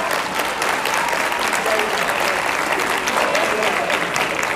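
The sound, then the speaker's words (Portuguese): Steady audience applause, a dense crackle of many hands clapping at an even loudness throughout, with no clear pauses or individual claps standing out. “Irmã, se você quer aplaudir, você aplaudir, mano.”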